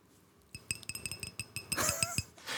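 Champagne glasses clink together repeatedly indoors in a quick irregular series of bright, ringing taps, ending in a louder wash of fizzing and rattling.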